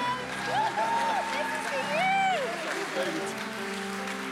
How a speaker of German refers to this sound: hey, danke, danke, danke euch für das, dass ihr uns da immer wieder leitet und durchführt. Komm mal, lass uns großen Applaus geben.